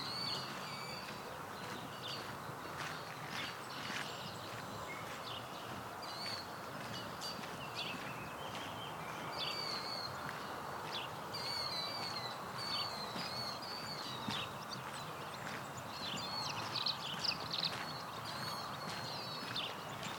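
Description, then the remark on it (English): Savannah sparrows sing thin, high, buzzy songs in a field, repeating every few seconds over a steady hiss of open-air background noise. No one speaks. “It's a field to the left of me with some Savannah sparrows in it.”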